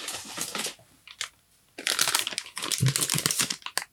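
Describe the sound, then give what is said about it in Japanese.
Crinkling of a Walkers Shortbread Fingers biscuit package, a product of Scotland: bursts of crackly, rustling plastic, a short opening flurry, then denser continuous crinkling in the second half, with no one talking. “このね、えー、ショートブレッドフィンガーズっていうですね、海外のお菓子、プロダクトオブスコットランド、ウォーカーズって書いてありますね。”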